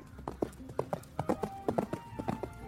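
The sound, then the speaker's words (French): Hoofbeats of a galloping horse, a quick uneven run of hard clopping strikes in close groups, steady over a faint background. “Et on dit que la mer monte à la vitesse d'un cheval au galop.”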